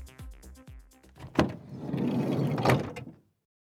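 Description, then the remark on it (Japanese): A few quick mechanical clunks and a latch click, then a broad rushing shuffle as a car door swings open and two people, a squad leader and another staff member, scramble out of the car, ending in a firm thump before silence. “車の中から班長ともう一人のスタッフが飛び出した”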